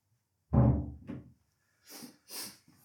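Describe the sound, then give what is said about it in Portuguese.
A door closes with a solid, resonant thud and a softer follow-up bump, then two short airy, hissing rustles. No one speaks. “Fechar a porta.”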